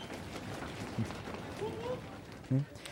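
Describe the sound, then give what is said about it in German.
Voices imitate the footsteps of people running over to someone, with a few soft, scattered mouth-made thumps and a brief sliding vocal sound, fairly faint against a noisy background. “Jetzt Renngeräusche von euch.”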